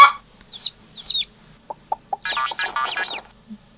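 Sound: hen clucking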